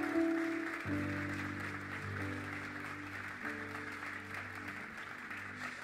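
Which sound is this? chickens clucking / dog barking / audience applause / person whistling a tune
audience applause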